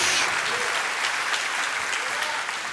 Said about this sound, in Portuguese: Dá uma salva de palmas ao Senhor, em nome de Jesus. Glória a Deus.